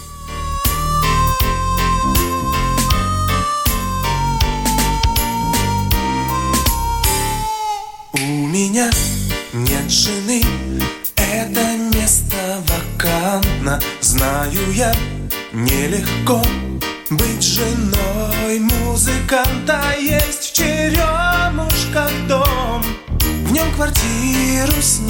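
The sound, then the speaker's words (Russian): A 1990s Russian pop song with a male singer plays loud, a steady beat and synth melody driving it, briefly dropping out once before the full arrangement kicks back in. “Ну что, давайте финалочку. Тоже песня.”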